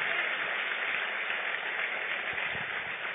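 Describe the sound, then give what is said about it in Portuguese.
Steady audience applause, a dense, continuous wash of many hands clapping at an even level throughout, with no voices rising above it. “Pode aplaudir a ele aí, irmão, porque ele é digno.”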